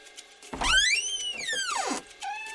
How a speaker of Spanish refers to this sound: Por suerte, la puerta estaba entreabierta y pude asomar un ojo. Pero de todas formas la puerta chirrió.